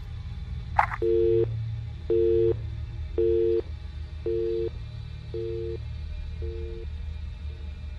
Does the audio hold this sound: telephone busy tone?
yes